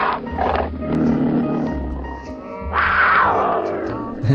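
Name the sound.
tiger roar sound effect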